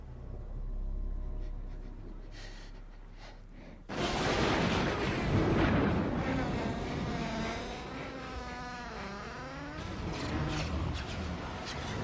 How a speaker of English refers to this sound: It's just thunder, Billy.